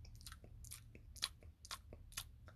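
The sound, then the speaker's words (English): A voice imitates wet lip smacking: a rapid, irregular series of about seven moist clicks and smacks, fairly quiet, with no talking. “Smacks its fucking lips together, right?”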